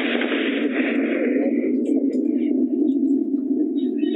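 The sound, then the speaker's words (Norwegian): A rocket blast rolls across the hillside as a steady, heavy roar that holds for several seconds without fading, with faint bird chirps above it. “Som vi hørte, så smalt det ganske bra rett over lia her. Antageligvis raketter.”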